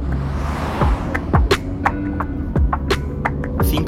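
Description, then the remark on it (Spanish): A steady low engine rumble and road drone, heard from inside a moving car that is following another car, with occasional sharp knocks and rattles from bumps. There is no talking. “minutos después estoy en el coche siguiendo al de Ricardo”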